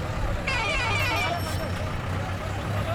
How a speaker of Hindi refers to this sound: चौक पे हमेशा की तरह टूरिस्ट बसों का हॉर्न और उनकी भीड़ दिखाई देती है